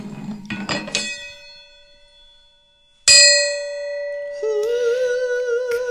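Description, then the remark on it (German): A metal gong is struck several times, a quick cluster of hits followed by two louder, separate strikes, each one ringing out with a long, shimmering sustain. “Gong, gong, gong. Gong, gong, gong, gong, gong.”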